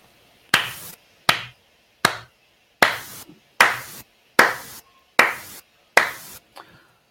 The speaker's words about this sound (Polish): Ironiczne oklaski. Tak, ironiczne oklaski